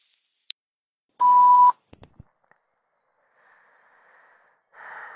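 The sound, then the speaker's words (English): A single loud, steady voicemail beep tone from an automated voice messaging system sounds for about half a second, followed by a few soft clicks and faint breathy rustling on an otherwise quiet line. “At the tone, please record your message.”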